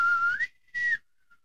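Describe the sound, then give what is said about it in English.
A person whistles a short, breathy three-part tune: a low note sliding up to a higher one, a brief pause, then a falling return to a lower note. Fairly clear. “It is also said that the Kushtika emit a high pitched three part whistle in the pattern of low, high, low.”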